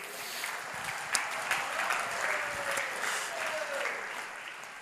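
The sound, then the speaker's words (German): An audience applauds steadily, a dense continuous patter of many hands clapping at an even loudness throughout, with a faint tonal whistle or cheer sliding through partway in. “Ein Applaus dafür.”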